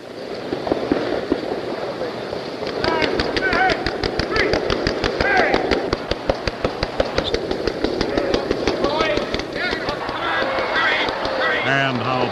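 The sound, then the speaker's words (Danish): Animal tails slap rapidly against ice in a fast, irregular volley of sharp smacks, like woodpecker drumming or carpet beating, over a steady background of chattering calls and murmuring. “Altså, den her spættelignende, nærmest sådan tæppebankeragtige lyd, øh, det, det er faktisk kusten, der bliver, der bliver sådan sjasket rundt, eller næsten slået rundt øh, over isen.”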